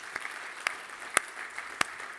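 Thin, scattered audience applause for a new meeting leader: a handful of sharp, distinct claps at irregular intervals over a soft, steady hiss, fairly quiet overall, with no one speaking.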